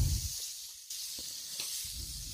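Steady sizzling of liver pieces, just turned over, frying in a hot pan, a dense crackling hiss with a few brief pops and a soft low rumble underneath, no voices.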